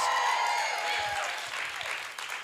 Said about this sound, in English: Somebody all over the church makes some noise for Jesus.